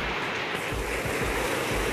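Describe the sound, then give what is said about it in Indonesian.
Heavy rain pours down in a steady, dense hiss that fills the whole clip, with low rumbling swells underneath and no voices. “ini lagi hujan deras banget sih”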